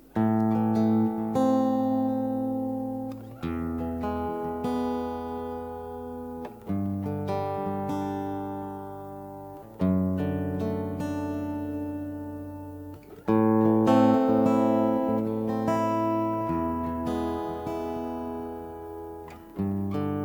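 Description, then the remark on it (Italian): A song plays loud on the radio, an instrumental passage of sustained, rich chords that shift every few seconds with soft attacks. No voices are heard. “il prossimo brano...”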